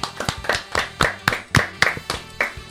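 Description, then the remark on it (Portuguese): Steady, brisk hand clapping for a woman, about ten sharp claps in an even rhythm, fairly loud and with no talking over it. “palmas para ela.”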